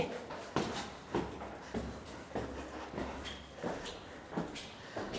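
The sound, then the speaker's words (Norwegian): A door is opened, followed by a steady series of footsteps, about eight evenly spaced thuds with a soft scuffing quality, heard alone without any talking. “Dør åpen, men den er lukket. der er den, ja.”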